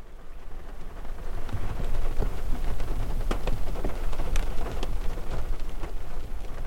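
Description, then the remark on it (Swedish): Steady rain patters against a car window at night, just after half past two, dense, with scattered sharper drops tapping the glass over a low rumbling wash. Nobody speaks. “Särskilt när regnet börjar smattra mot rutan vid strax efter klockan halv tre.”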